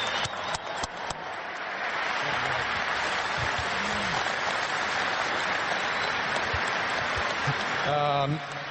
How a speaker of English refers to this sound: So I think all you guys owe this one a round of applause, too.